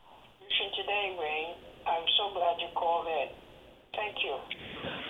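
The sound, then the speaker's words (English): A caller's radio from the Poconos plays in the background over a telephone line during a call-in show, with muffled, tinny voices coming through in bursts, indistinct, with short pauses between phrases. “oh, I'm hearing your radio, but I'm not hearing you.”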